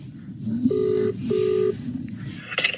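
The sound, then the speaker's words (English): A phone call to a friend, placed live on the radio, rings out: two steady electronic ring tones, each under half a second, separated by a short pause, over a low murmur of background noise. “They were like, you either have to show us your last phone call or call a bro. And I was like, this dude's gonna pick up.”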